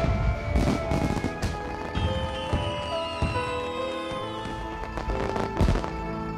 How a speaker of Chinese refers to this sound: 那是我过的最为伤心的一个除夕。屋外鞭炮烟花